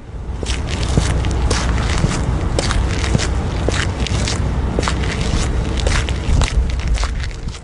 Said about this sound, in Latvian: Kas tur bija? cilvēks staigāja.